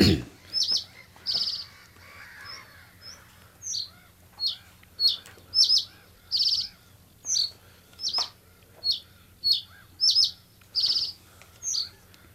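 A reed bunting sings a string of short, bright, high-pitched notes and trills, repeated roughly every half second with brief pauses, standing out clearly over a faint low hum.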